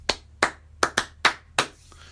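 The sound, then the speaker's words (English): Hands clap out an uneven rhythmic pattern, six crisp, sharp claps with varied spacing, some quick pairs and some longer gaps, tapping out a song's rhythm without any voice so that listeners can guess the song. “They then, without saying or singing anything, clap out the rhythm of the song.”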